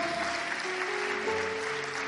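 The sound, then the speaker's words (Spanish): An audience claps steadily throughout, a dense wash of applause that fills the whole moment while sustained keyboard or organ notes hold underneath. “Oh, sellalo con un aplauso y dile gracias, Señor.”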